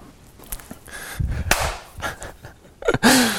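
A person claps their hands a few times, sharp, the claps spaced irregularly with short pauses between them, over some low background noise, during the first break of an Everyday Leadership interview.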